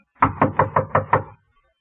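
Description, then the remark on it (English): Six firm, evenly spaced knocks on a locked wooden apartment door in quick succession, fairly loud, followed by silence. “The door was locked, so I knocked.”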